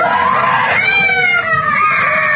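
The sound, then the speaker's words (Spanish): Several children scream in fright at once as people wearing masks scare them, shrill overlapping cries that hold loud and steady for a couple of seconds with a brief dip midway, with no talking. “Y entonces las desgraciadas, las burras del día, se ponían la máscara y les asustaban a los pobres niños y escucha los gritos de los niños.”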